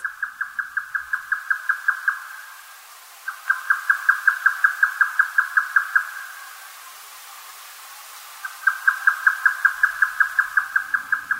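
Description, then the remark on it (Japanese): A grey nightjar at Zao calls in rapid, evenly spaced chains of sharp mid-pitched notes, three long bursts separated by short pauses, clear and steady over a quiet, faint hiss. “蔵王のヨタカをお届けします。”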